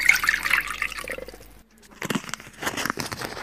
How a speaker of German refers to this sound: Zuerst kommen in einen Messbecher 350 ml warmes Wasser. Das lauwarme Wasser gieße ich jetzt in eine Schüssel.